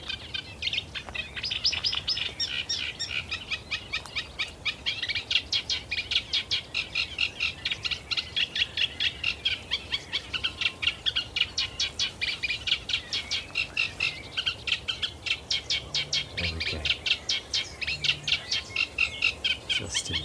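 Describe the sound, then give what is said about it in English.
A reed warbler sings continuously overhead in reed beds and lagoons on Somerset nature reserves, a rapid, chattering run of repeated scratchy notes and churrs with a steady pulsing rhythm, no voices present. “It's a reed warbler singing overhead.”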